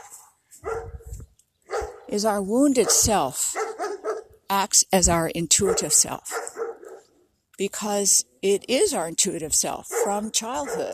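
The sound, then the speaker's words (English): A dog barks and yips in repeated bursts, cutting in and out while a person keeps talking over it. “that's a dog”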